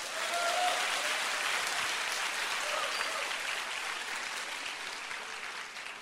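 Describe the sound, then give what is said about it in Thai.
An audience applauds God at the end of a sermon, a dense crackle of many hands clapping at once, fairly loud and sustained for several seconds before tapering slightly at the end. “ใครเชื่อว่าสิ่งที่ผมเทศมาทั้งหมดวันนี้จะเกิดขึ้นกับท่าน อาเมนตบมือพระเจ้าดีไหมครับ”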